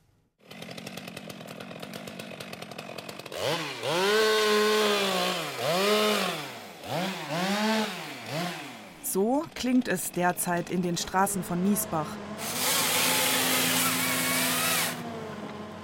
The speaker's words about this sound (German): Neben dem Rathaus schneidet eine Holzerntemaschine, ein sogenannter Harvester, mit einer Säge an einem langen Greifarm einen Ahorn ab und legt ihn auf die Straße. Der Baum reichte ursprünglich bis zum zweiten Stock.